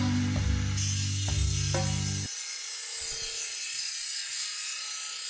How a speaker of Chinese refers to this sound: 你们刚刚听到那个滋滋滋的声音吗？原来是我打开淘宝，那个卖家的视频自动在播播放，然后拿着一个切割机在割那个骨灰盒，吓我一跳。